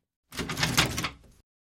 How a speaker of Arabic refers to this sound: الباب بقبضته بقوة فانفتح، ثم دلف إلى الداخل.